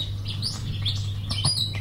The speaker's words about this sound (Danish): faktisk fuglen Munken, vi hører lige nu. Det er den 21. i 10. Og øh, i dag, nu når vi hører fuglelyde, det er også noget, man kan forbinde med fred